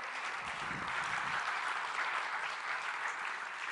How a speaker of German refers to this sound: Es sollte mir eigentlich dem Herrn einmal einen Applaus geben, dass er so, so tolle Dinge macht, oder?